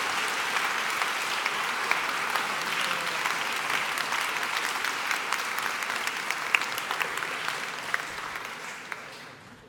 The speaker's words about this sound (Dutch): Dank u wel. Heel hartelijk applaus graag voor Rutger Bregmans.